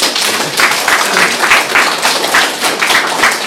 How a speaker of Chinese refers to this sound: 来，给点掌声，给点掌声。